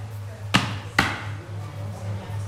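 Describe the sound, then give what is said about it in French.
Two heavy foot stomps, made as body percussion, land about half a second apart: sharp thudding impacts over a steady low hum, followed by quiet. “Et sinon, simplement, le clap des mains, les mains claquées sur le corps, les claquements de doigts et les pieds.”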